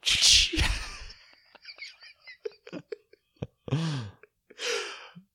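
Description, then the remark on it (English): A voice imitates a whip crack with a sharp, breathy burst, followed by scattered mouth clicks and two short, airy vocal sounds. “Which is like it's so mean, but also and then he'd do like a little like he'd do like a little whip thing after they go.”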